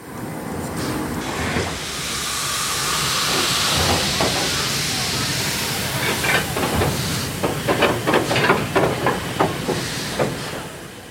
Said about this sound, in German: So, eine Dampflok steht jetzt auf der Drehscheibe drauf. Passt gerade so von der Länge.